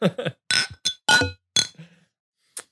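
Several glasses clink together in a toast in front of the microphone, bright ringing taps in quick succession, followed by a softer single clink after a short pause.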